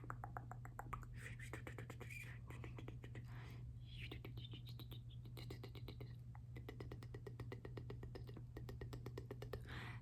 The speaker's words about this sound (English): Okay, and we're just gonna pencil that in. We're just gonna pencil it in. Make the shape. Just make the shape real quick, and then.